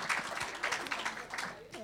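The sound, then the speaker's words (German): A short burst of dense audience applause for the speaker's wife, many hands clapping at once, while a voice speaks over it as the clapping continues. “Applaus für meine Frau bitte an dieser Stelle, weil ich fand das mega.”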